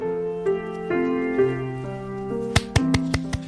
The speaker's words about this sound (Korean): 어, 왜, 왜 박수를 치세요?